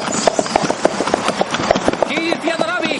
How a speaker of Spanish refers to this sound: Un carro de caballos se acerca a una gran mansión en la entrada de la mansión.